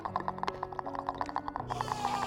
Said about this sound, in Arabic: صوت التكتكة عالي زي ما يكون بيبلع صوت الصرخة